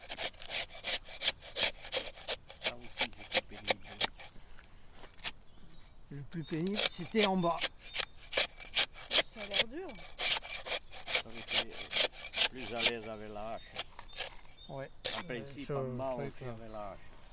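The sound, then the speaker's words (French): Rapid, rhythmic scraping strokes on pine bark repeat steadily, a blade rasping the wood to tap resin in traditional pine resin harvesting (gemmage) in the Landes, France, while voices talk intermittently over the work. “Cette activité économique, très prospère dans les Landes jusque dans les années 60-70, consiste à récolter la résine des pins”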